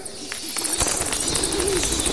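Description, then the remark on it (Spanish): Soft, low owl hoots repeat over a steady airy background hiss, with no voices present. “búhos y murciélagos.”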